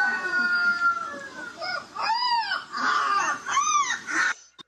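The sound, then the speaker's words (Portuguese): A rooster crows a few times in quick succession, the drawn-out, rising-and-falling calls loud, with an earlier steady wavering cry and no talking. “São o quê? Galinhos também?”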